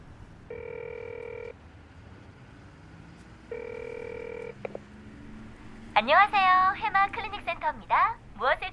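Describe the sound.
A mobile phone ringback tone, from calling back a missed call labelled as the company, sounds twice, each a steady buzzing tone about a second long with a pause between, followed by a click and then a voice speaking.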